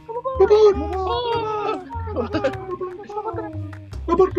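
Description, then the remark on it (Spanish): Voices repeat the same word several times in a row, each repetition trailing after the last to mimic an echo, spoken fairly loud with a bright, sing-song tone. “Spotify capaz que no saben que somos nosotros que repetimos”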